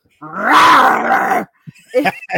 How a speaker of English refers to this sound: Uh, so I got on on YouTube and I googled snarling scary dog. And I've got a couple of videos that I have saved on my YouTube.